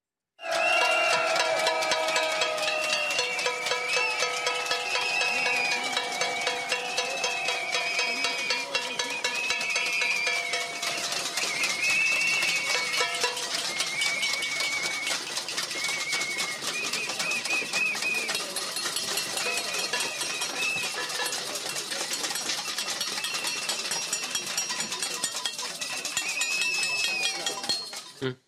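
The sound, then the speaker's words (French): A crowd of protesters in Alsace, France, bangs saucepans in a loud, dense metallic clatter, many pots struck at once in an unbroken racket that lasts the whole time, with ringing clangs layered over each other. “Juste pour parler de nouveau des, manifestants, pour rythmer également notre débat des différentes séquences qu'on a aperçues aujourd'hui, les fameuses casseroles étaient euh, de sortie également en Alsace.”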